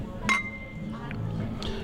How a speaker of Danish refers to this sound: Vi øh, ruller en øh, hylade, og øh, vi tager en, en skål. Vil du være med til det? Ja. Godt.